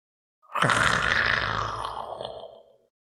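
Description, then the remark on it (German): A tiger's growl rumbles up close, a single sustained, rough snarl lasting over two seconds, loud and gravelly before fading out, with no other sounds around it. “ein Knurren neben sich.”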